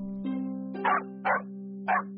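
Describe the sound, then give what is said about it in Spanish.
A dog gives three short, sharp barks at the door in quick succession, spaced evenly, over a steady low hum in the background. “Tan gruñón como él mismo, su perro ladró a la puerta.”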